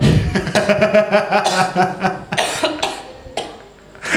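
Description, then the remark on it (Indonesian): A loud fit of coughing, several harsh bursts in quick succession with brief gasping breaths between, fading toward the end before one last short cough. “sorry batuk.”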